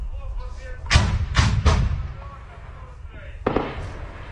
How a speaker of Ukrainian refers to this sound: Погодин працює артилерія. Похоже на 120-й, можливо, хоботастий.